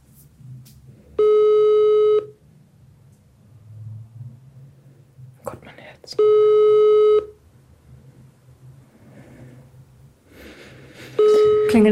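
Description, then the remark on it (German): A call dialled on a mobile phone gives a ringback tone three times, each steady one-second tone followed by a long pause, with nobody picking up, over a faint low background rumble. “Ich glaube, sie geht nicht dran.”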